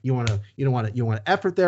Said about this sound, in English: I don't know why I keep hitting my fist, but you know I'm doing it for effect here. That's this weird slapping sound you're hearing.